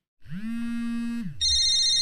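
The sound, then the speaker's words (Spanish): A telephone rings with a loud electronic ringtone. A low, drawn-out hum gives way to a bright, piercing high-pitched tone that continues steadily, with no voices. “ya estás donando el teléfono. No, no, contestes, no contestes.”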